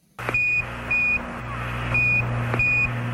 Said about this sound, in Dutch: Dat is het geluid van de NASA Comcheck. Het piepje dat te horen is op de communicatielijn tussen de ruimtevaarder en het commandocentrum.